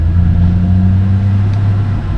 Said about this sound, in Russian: Хотя, ну, но даже утром, когда я записываю, обязательно кто-то должен проехать.